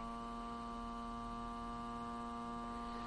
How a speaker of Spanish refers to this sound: Escucharán un ruido que es como a través de un cono de captación está captando las partículas que hay en el ambiente y las mide a través de un láser.